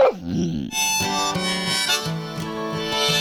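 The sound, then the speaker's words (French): Sustained, ringing glass harmonica tones held one after another, played by resting fingers on a series of 37 glass bowls fitted on an axis, with shimmering overtones after a brief gliding note at the start, steady and without any voices. “Non, nous non, pas comme ça, de l'harmonica de verre.”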